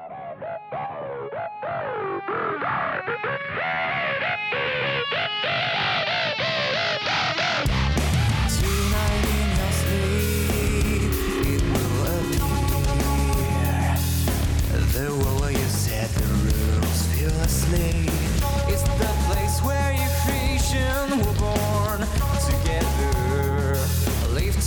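A metal track plays, opening with a thin, filtered, building intro before crashing into a loud, dense wall of distorted guitars and heavy drums that keeps pounding steadily to the end.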